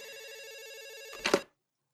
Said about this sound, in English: We have a hotline for weeks, no one calls, and now all of a sudden it's ringing off the fucking hook?